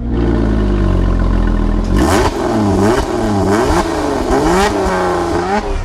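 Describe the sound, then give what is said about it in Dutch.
A Lotus Emira sports car's combustion engine idles with a steady low rumble, then is revved hard several times in quick bursts, the pitch sweeping up and dropping back with each blip of the throttle. “Kijk, zo, zo klinkt de Lotus Emira dus.”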